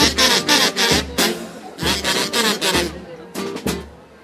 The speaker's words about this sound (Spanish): Y terminamos ya con una polca de los famosos …, de su callejera ….